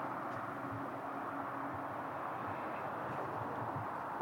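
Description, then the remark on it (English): A steady, faint wash of road traffic, a continuous low rumble and hiss with no distinct passing vehicles standing out. No voices are present. “Just traffic.”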